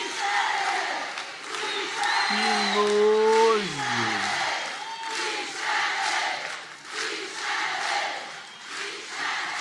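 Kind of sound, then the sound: crowd, crowd of people shouting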